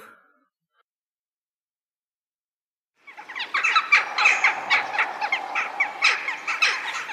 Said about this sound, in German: Fangen wir mit dem wichtigsten Fakt an. Was ist der Vogel des Jahres? Die Dole.